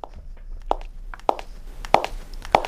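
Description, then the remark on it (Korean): A woman walking in dress shoes clicks in four sharp, evenly spaced footsteps, each a bright hard tap over a quiet background with no talking. “네, 여자의 구두발자국 소리입니다.”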